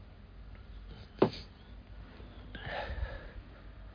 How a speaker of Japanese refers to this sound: ちょっと麦茶を飲みました。